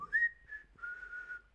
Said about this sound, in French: Alors siffler, oui, vous le, vous le savez tous, évidemment, siffler, c'est émettre un son aigu par la bouche ou par le nez aussi. On peut siffler du nez, hein.